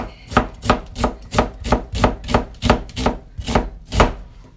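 A knife finely minces an onion on a cutting board in a steady rhythm, about a dozen crisp, close-up strokes with no talking.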